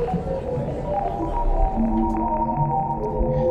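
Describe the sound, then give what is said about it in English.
A continuous, eerie electronic hum with layered sustained tones and a slow throbbing pulse, steady and fairly loud throughout, a sonified deep-space signal from the Hubble spacecraft. No voices. “out really deep signals into the deepest regions of space, and these are the sounds that we've heard.”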